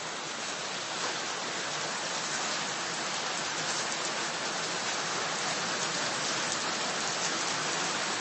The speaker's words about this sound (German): Wie lange kann man ein iPhone in ein Gewitter halten? Hallo Esel, hier ein bisschen Gewitteratmo. Nur für dich.